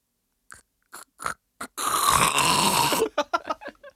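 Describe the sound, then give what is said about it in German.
A person loudly imitates their father's snoring: a few short breathy snorts, then one long, rough, rattling snore of over a second, followed by quick smaller snorts, with no talking. “So schnarcht Ey. mein Vater. Ich mach's mal ganz kurz vor.”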